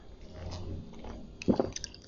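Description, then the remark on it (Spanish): Someone drinks water: soft wet sips and a couple of quick gulps in the middle, with faint mouth and swallowing noises against a quiet background and no talking. “con escuchen que tome agua, perdón.”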